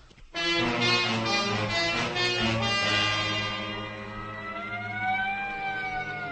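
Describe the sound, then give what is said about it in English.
An ambulance siren wails loudly, holding a steady blaring tone before its pitch begins to sweep and rise in long glides near the end. “The ambulance is waiting.”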